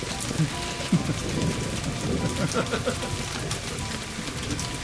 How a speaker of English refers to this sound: it's starting to rain.